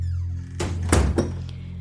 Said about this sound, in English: She unlocks the door with a trembling hand, gathers her package, and steps into the house, closing and locking the door tightly behind her.